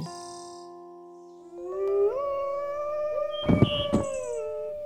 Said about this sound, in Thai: ไม่ไม่เจ้าพวกหมาตัวร้าย ฉันไม่อยากฟังเสียงของพวกแกเลย ไม่ไม่ฉันไม่กลัวพวกมันมันอยู่ไกล